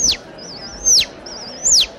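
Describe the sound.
A person whistles animal calls, imitating a nightingale and a chick with a cold: a wavering, warbling trill broken by sharp, bright downward chirps, repeated three times in a steady rhythm, clear with no talking.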